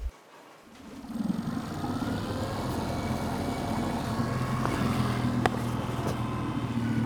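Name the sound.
motorboat engine running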